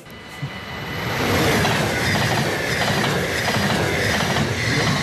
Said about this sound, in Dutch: Je, je hoort hem ook wel, hè? die trein die rijdt van het spoor wat in de steentjes ligt... over het spoor wat in de betonnen plaat ligt.